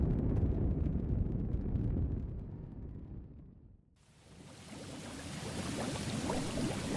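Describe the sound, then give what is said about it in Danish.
Steady, dense bubbling water churns in a hot tub, loud and continuous, dipping briefly to a quieter lull before the frothy rush returns even brighter and fuller. “Lige at sidde her lige i boblebadet efter en god omgang træning.”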